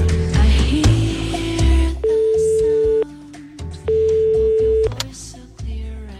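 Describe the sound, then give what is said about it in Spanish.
A telephone pick-up sound effect: two steady electronic ringing tones about a second each, separated by a short pause, with a burst of busy noise and low rumble before them. “Suene, cuando suene el efecto, de el eh, coger teléfono, comienzas, ¿vale?”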